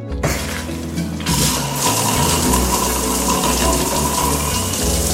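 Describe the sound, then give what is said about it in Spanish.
Steady, loud rushing of shower water running, a continuous hiss of spray that starts abruptly and keeps flowing evenly, with no voices. “Otra cosa que también sugerimos hacer por las mañanas es tomar una ducha fría, ya que pueden energizar y tonificar.”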